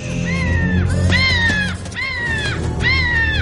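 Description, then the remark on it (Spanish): A raven caws four times as it flies into a stone cabin, in a steady run of loud, harsh, drawn-out calls, each sliding downward, over a low, continuous rumble. “El cuervo entra volando en la cabaña.”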